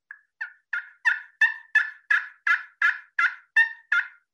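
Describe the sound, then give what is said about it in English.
A turkey friction call scraped with a carbon-tipped striker produces a run of twelve raspy yelps, rising in loudness then holding steady at an even, quick rhythm, clear with no talking. “But you can make lots of different calls with this. And I mentioned just the sound of this. This one has a carbon tip.”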